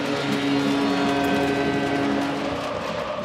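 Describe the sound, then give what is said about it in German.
The Werder Bremen team bus's engine drones loudly and steadily as it rolls past a ramp, a continuous rumbling hum with no voices over it. “Der Bremer Bus fährt an der Rampe vorbei und diese Wand der Werder-Fan steht hinter diesem Bus, hinter dieser Mannschaft.”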